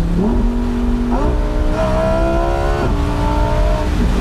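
The naturally aspirated V10 of a matte orange Huracan Spider, an engine shared with the Audi R8, revving beyond 8000 rpm and producing 610 hp, climbs loudly through the gears and downshifts, its pitch rising in steps and dropping sharply between shifts, with a harsh, wailing tone.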